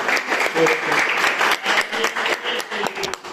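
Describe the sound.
An audience bursts into dense, steady applause, many hands clapping at once in a continuous crackling roar that holds for several seconds, with a few voices mixed faintly into the noise.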